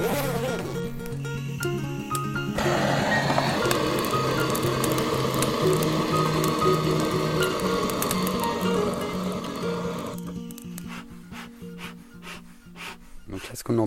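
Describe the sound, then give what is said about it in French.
A bee smoker's bellows being pumped, with repeated creaky wooden rubbing and airy puffs over a steady buzzing drone, then a few sharper clicks near the end. “c'est le soufflet de l'enfumoir.”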